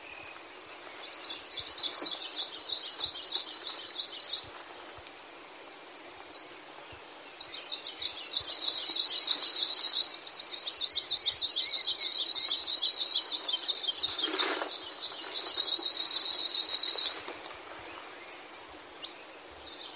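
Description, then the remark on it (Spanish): Songs of endangered birds: high, rapid trilling birdsong in repeated buzzy phrases, some long sustained trills, with a few short chirps in between, clear against a quiet outdoor background with no voices. “Antes de cerrar el episodio, solo quiero compartir con ustedes las canciones de algunas de estas aves en peligro de extinción.”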